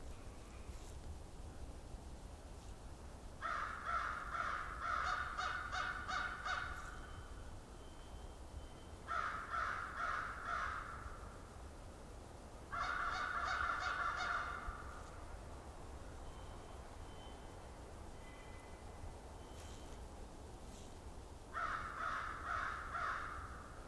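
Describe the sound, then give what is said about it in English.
American crows caw in several loud bursts of repeated harsh calls, spaced a few seconds apart, over a steady low outdoor rumble with no talking, in a fairly quiet camping area at Valens Conservation Area, southern Ontario, on January 1st, 2021. “And the first bird I'm recording this year is some American crows.”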